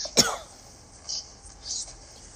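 A single harsh, forceful cough bursts out after something went down the wrong tube, followed by a couple of quieter, raspy breaths as the person recovers.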